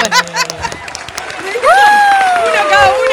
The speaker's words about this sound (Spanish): Fuertísimo el aplauso, gritos, ovación para recibir a